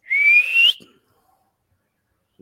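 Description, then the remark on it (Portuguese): A person whistles one loud, steady blast, pitch rising slightly, imitating a referee's whistle signalling the end of the game. It lasts just over half a second, then silence follows. “Acabou o jogo. Faz o barulho da pita aí, pessoal.”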